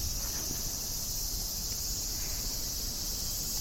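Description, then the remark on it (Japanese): A steady, dense insect drone of cicadas fills the air, a continuous high buzzing with no pauses or speech, over faint background rustle. “聞こえますかセミの声。”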